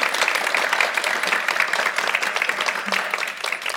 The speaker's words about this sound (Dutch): mag ik een hartelijk applaus voor Nazmia Oral, de OG Neder-Turk.